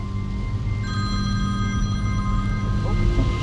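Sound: telephone ringing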